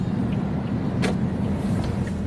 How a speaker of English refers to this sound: The car is meandering through a crowded bazaar, following two men on a motorbike.